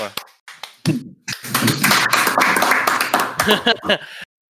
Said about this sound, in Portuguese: Ó, oh, palmas,